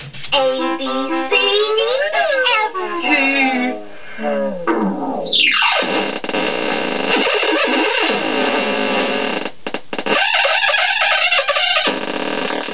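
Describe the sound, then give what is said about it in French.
A circuit-bent electronic alphabet toy called l'alphabet magique glitches loudly: warbling, wobbling synthetic tones give way to a steep pitch dive, then a harsh distorted buzz and choppy stuttering bursts, with no one talking. “Tiens, écoute celui-ci, l'alphabet magique, là.”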